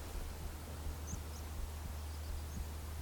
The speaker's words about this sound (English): There's some water flowing over there. There's the wind, some birds twittering over here. The sheep are chewing grass. It is silent, but it's not silent.